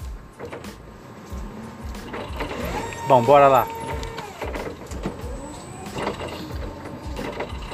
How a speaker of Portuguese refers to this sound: Me perdoa aí os erros e os ruídos de fundo. Estou aqui trabalhando, dirigindo a minha viatura.